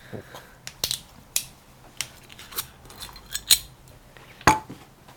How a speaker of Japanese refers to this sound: それで先にお酒なんですね、はいはい、でそこに氷を入れていきます